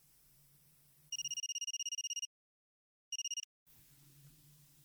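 A mobile phone rings with a rapid electronic trill, one burst of about a second, a pause, then a shorter burst cut off, over a quiet low background hum.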